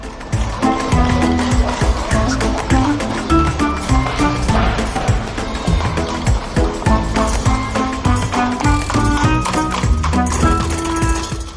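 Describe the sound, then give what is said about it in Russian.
Rapid, steady hoofbeats of a piebald horse galloping wildly while pulling a cab past a cab stand on Haverstock Hill, loud, with a continuous rattling clatter running through the whole passage and no voices. “Несколько минут спустя кучка кэбманов и ротозеев, как всегда собравшаяся у стоянки извозчиков на Хаверсток-Хилле, была поражена видом бешено мчавшейся пегой лошаденки, запряженной в кэп.”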